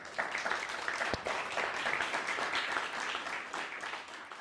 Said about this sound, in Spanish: Bueno, dele un fuerte aplauso al bendito sea.